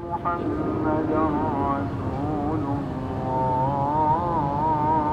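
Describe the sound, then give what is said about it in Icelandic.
A muezzin's call to prayer from a mosque in Qatar, where the call is quieter and much shorter than in other Muslim countries: one sustained male voice singing long, wavering melismatic phrases, carried at steady volume over a continuous low rumble. “Músinn kallar þarna til Ash síðeispænar í Moskunni en í Katar er greinlegt að kallið er bæði lávarara og mun stittra en ég á að venjast í öðrum löndum múslima.”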